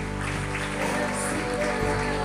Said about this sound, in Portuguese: Vamos aplaudir nosso Deus, vamos lá.